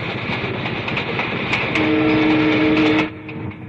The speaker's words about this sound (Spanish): Un tren circula en mitad de la noche.